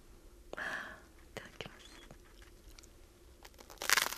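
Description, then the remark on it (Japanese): Crisp crunching of someone biting into reheated takeout nori toast, toast sandwiching soy-sauce-grilled nori: a few sharp, scattered crackles, then a louder, brittle burst of crunch at the end, with a soft breathy hiss early on. “こちらをですねテイクアウトしましたのでちょっともう一回温めて見ましたので、はい、冷めないうちに、はい、どうぞいただきますすごい匂い これはノリトスの匂いだ”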